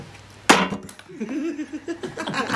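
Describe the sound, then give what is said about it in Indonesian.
A metal can is struck once with a sharp, loud clank that rings and fades quickly, followed by quieter voices and murmuring. “Iya kaleng lagi.”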